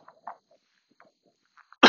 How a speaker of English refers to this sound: Excuse the cough. Never fails.